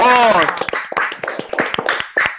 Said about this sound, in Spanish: Serían un fuerte aplauso.